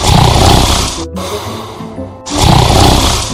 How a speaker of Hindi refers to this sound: जब संभले तो गेटमैन के केबिन में पहुंचे साहब बाहर लाइन लगवा के अंदर आराम से चद्दर ताने खर्राटे मार रहे थे